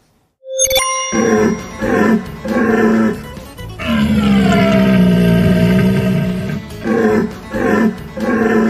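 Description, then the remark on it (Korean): A deep, roaring stag call imitated by a person blowing through a pipe at a deer-calling contest in Latvia. It comes as several loud, drawn-out bellows with one long sustained roar in the middle, resonant, after a brief ringing tone at the start. “사슴을 유인하기 위해서 파이프를 입에 대고 이것 울음소리를 흉내내는 대회라고 합니다.”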